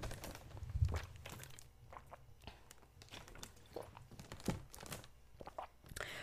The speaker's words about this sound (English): Should I drink water? That's a good idea, right? Hold on. Give me a sec, guys, while I take a sip of this hydration. While I'm drinking this water, go drink some water yourself.